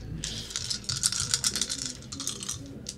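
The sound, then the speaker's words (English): Dice rattle and clatter for a few seconds, a dense run of small hard clicks, fading with a final tap, as a player makes a roll in a tabletop game. No one speaks. “Make your roll.”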